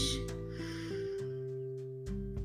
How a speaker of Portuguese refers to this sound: Vamos inspirar, ok? Inspira. Expira. Inspira pelo nariz.